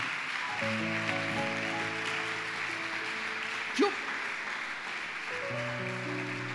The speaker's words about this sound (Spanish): Yo no sé si usted agradece eso, pero debería darle un aplauso más grande al Señor.